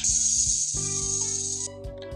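A rattlesnake's rattle buzzes in one loud, steady, dry hiss, then cuts off abruptly near the end, with a low rhythmic musical pulse underneath.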